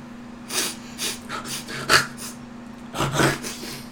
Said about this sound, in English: Doesn't sound good that we said we're taking a break and I'm coming back sniffling.